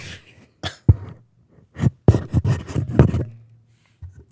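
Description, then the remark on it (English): A head butts into a microphone, making a cluster of loud, dull thumps and rustling knocks in an irregular burst, with no talking. “just head butted the microphone because uh, cause of stories.”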